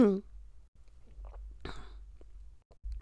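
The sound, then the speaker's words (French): A quiet second small sip of water and a swallow: soft wet mouth clicks and one brief gulp over a low background hum, after a short vocal sound at the start. “petite gorgée d'eau seconde fois.”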